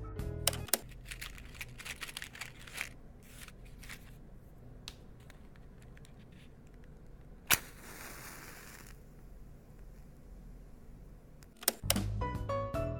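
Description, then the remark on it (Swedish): A match is struck with a sharp scrape and flares into a brief hiss, preceded by soft clicking and rattling, all quiet with no voices. “det var självklart en tändsticka som tänds.”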